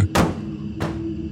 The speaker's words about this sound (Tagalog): Pero hindi ko pa rin ito pinansin habang umiinom ako ng tubig, narinig kong nagsara ng malakas ang pinto sa CR.